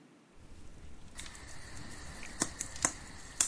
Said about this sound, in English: That is a campfire sound. Correct. If I ever heard one myself.